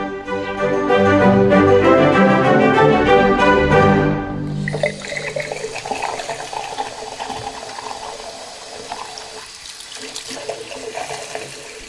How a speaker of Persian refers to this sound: پرید تو دستشویی و با دست پاچگی یه آبی به دست و صورتش ریخت